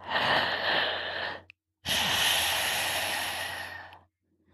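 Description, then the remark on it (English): Two long, breathy rushes of air through a tightened throat in Ujjayi breathing, a steady inhale then a longer exhale, fairly loud with an oceanic hiss, separated by a brief pause and no talking. “When you're able to control the throat on both the inhale and the exhale, making those noises.”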